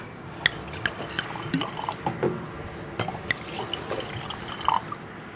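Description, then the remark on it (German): Sparkling wine is poured into glasses on a day of nice weather, a steady fizzing crackle of bubbles with scattered tiny drips and light glassy ticks, fairly quiet and continuous, with no one speaking. “Also, jetzt trinken wir mal.”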